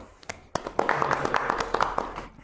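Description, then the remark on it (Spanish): A short burst of applause welcoming a guest for an interview, a small group clapping with rapid, irregular claps that swell and continue steadily for a couple of seconds at moderate loudness. “Un aplauso.”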